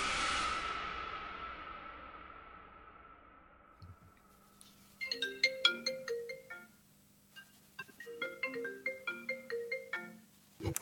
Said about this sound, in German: Oh, aber ich habe so einen scheiß, so einen scheiß Klingelton eingestellt. Warte, ich rufe dich an. Ich habe den aus Versehen umgestellt.